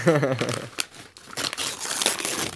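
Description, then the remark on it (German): Gift wrapping paper crinkles and tears as a Christmas present is unwrapped, in a series of irregular, noisy rustling bursts, opening briefly with a short voiced sound before the paper noise takes over. “yes, das sind die Geräusche. Live Weihnachten hier.”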